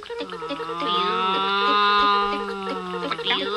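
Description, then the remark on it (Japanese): A voice imitates a loud racing car engine, like an F1 car, standing for cars heard from afar, holding a steady, buzzing drone for a few seconds, forceful, with a slight wobble in pitch near the end. “まあ、F1 カーみたいになっちゃってますけどね。もうだいぶうるさい。”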